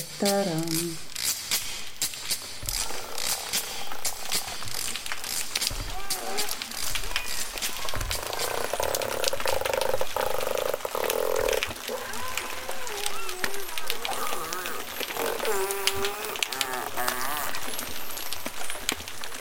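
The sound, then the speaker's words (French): A dense, steady crackle of underwater dolphin clicks fills the whole stretch, with warbling, rising and falling whistles weaving through it at moderate loudness. “avec les dauphins, on est dans une communauté et ça crépite aussi sur tout le spectre sonore.”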